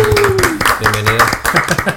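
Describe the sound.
A short burst of quick, irregular hand clapping, like a small group applauding, with voices talking and calling out over it throughout.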